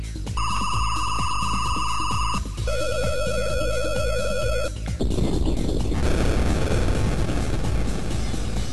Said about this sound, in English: you just said that explosion is still badass, and I agree.